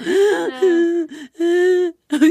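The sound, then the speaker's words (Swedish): A voice imitates uncontrollable sobbing from pain: three or four drawn-out, wavering wails broken by quick catching breaths, fairly loud, with no words spoken. “Och jag kunde inte sluta gråta för jag kunde inte prata.”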